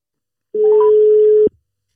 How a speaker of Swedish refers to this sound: Eh, oj, nu ringer jag, nu fan jag håller på att ringa fel.